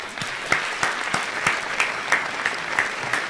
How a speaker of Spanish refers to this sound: Que están aplaudiendo, no sé, no. Vaya, por favor. Aplauden demasiado.